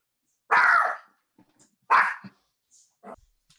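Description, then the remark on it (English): A dog named Poppy barks twice loudly, the sharp barks about a second and a half apart, followed by a few softer yips and snuffles. “we rolled the dice with Poppy being in here and Spencer coming home, and uh, Spencer came home”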